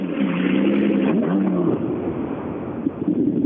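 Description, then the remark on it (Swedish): The engine of a baby blue BMW E36 car idles and revs, its droning tone rising and dipping a few times before settling into a rough, steady rumble with wind noise over it. “han står framför här i sin Baby Blue, blå E36.”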